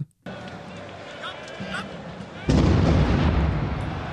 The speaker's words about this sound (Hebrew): בשעה תשע ועשרים, שלושה פיצוצים עזים נשמעו בסמוך לאצטדיון והפרו את השלווה הפריזאית.